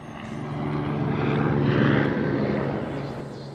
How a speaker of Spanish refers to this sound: Incluso salió una estrella. No verás una estrella así en la jungla. Es un helicóptero.